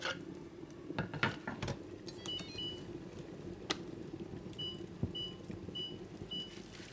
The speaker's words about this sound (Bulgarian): В тенджера с гореща вода ще сложа плода да се вари на котлона, за да омекне, защото искам после и да го пасирам.